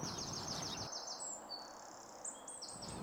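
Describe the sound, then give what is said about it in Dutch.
Birds outside sing in a steady stream of high, twittering chirps and trills, fairly faint, with no voices, just soft background hiss underneath. “De vogels die je net hoorde, en misschien nog steeds, nou, die geluiden, die klinken mij nou als muziek in de oren.”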